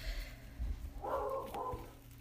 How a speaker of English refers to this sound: Sorry, my bo- my dogs are barking again.